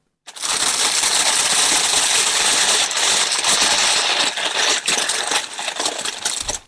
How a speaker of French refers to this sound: c'est quand tu ouvres le paquet, genre ça fait Ouais, quand ouvres le paquet, quand tu prends des chips à l'intérieur et qu'il se fissure un peu